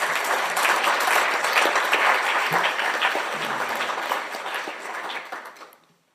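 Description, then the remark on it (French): A crowd applauds warmly, a dense steady wash of many hands clapping that holds for several seconds before fading out at the end. “je vous invite donc à inviter, à applaudir chaleureusement un grand artiste.”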